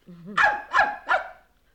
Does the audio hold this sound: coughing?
no